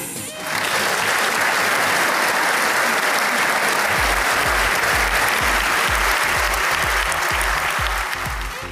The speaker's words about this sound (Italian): Così la stessa cosa quando sei in difficoltà in un discorso che ti stai per incartare e non sai più come uscirne, tiri fuori uno splendido congiuntivo tutti in piedi, standing ovation, sipario, applausi e via.